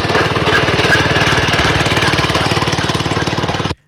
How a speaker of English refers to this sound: It's a man on a treadmill with wheels. Nobody got it right. It's not a tractor.